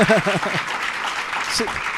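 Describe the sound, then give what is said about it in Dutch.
An audience in a hall applauds with dense, steady clapping as the book Mot en de Metaalvissers is about to be announced as a new entry in the top 10 list, while a voice speaks briefly over it at the start and again near the end. “ze wil gewoon niet zeggen, want ze klappen nu al.”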